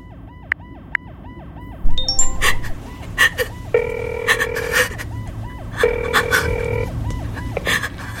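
An outgoing call made from inside a car to a father's mobile phone: the ringing tone repeats in steady electronic bursts, clear, with a few short beeps and a faint murmur of background noise underneath.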